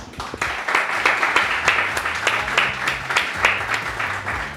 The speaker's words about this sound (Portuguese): Uma salva de palmas, obrigado.